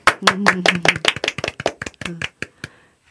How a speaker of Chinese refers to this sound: 那我们在这儿听这首诗歌， 好 呃我们用热烈的掌声欢迎。